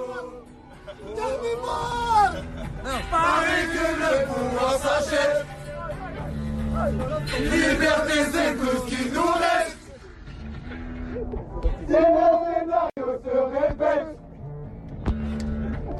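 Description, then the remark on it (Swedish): Players sing a loud, rowdy chant celebrating their title and place in the final, in repeated bursts, the melody carried together over a noisy, crowded background for about sixteen seconds. “Eh, och vi kan väl smålyssna lite på vad, vad de sjöng. Det lät så här.”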